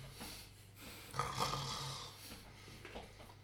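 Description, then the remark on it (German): Loud, rasping snoring of a person in the middle of the night, one long rattling breath swelling in the middle with a low throaty drone, followed by softer breathing snorts. “Mann, ist der Zwerg wieder laut am Schnarchen.”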